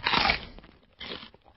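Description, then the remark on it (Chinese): A 14-year-old boy in South Korea eats on a daily online livestream: crunchy chewing with a loud, crackly first bite, quieter mouth sounds, then a second shorter burst of crunching. No one speaks. “看下人家吃起饭就有钱挣，人家在靠吃饭挣钱，自家在靠挣来的钱吃饭，这个就是差距啊！”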